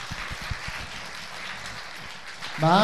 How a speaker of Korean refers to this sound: 박수 주세요.